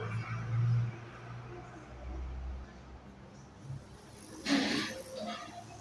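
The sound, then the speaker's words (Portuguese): A car passes by: a low engine rumble rises and swells into a brief hissing whoosh of tires before fading, against a quiet outdoor background. “Vai vir aqui no né, carro.”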